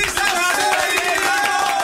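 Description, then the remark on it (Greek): A recorded applause sound effect: steady applause from a crowd, a dense patter of many hands clapping at once, fairly loud and continuous with a faint tonal hum of cheering running beneath it. “Α, λάθο, έβαλε χειροκρότημα, με συγχωρείτε.”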